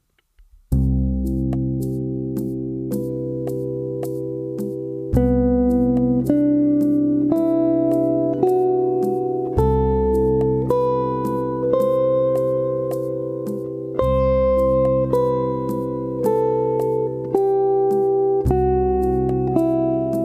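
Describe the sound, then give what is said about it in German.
A scale practised over a backing track, beginning on the major seventh: a melodic line steps up through the scale, one note about every second, over sustained backing chords that change every few seconds. Steady and fairly loud, with no voices. “Wie klingt es, wenn wir das zu dem Playback dazu üben?”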